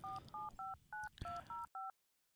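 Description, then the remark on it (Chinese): Mobile phone keypad dialing: seven short two-note beeps pressed in a quick, slightly uneven rhythm over a faint background hiss, the last beep sounding alone before silence. “紧接着，他摸出了手机”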